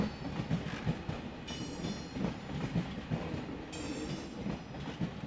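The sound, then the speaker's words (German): A train arriving at Liège-Guillemins railway station in Liège rolls along the rails with a steady clickety-clack of wheels, low rumbling throughout and bursts of high metallic hiss or squeal, with no voices. “Lüttich, Liege, Guillemin begrüßt mit tollem neuen Bahnhof.”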